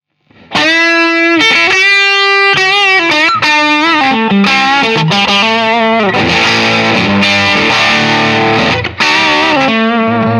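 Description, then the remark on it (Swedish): A heavily distorted electric guitar plays a loud, sustained lead line as the gain is turned up, notes ringing and bending over thick harmonic saturation, with no talking. “jag drar på, drar på gainen då, för nu har vi ju bara rakt upp.”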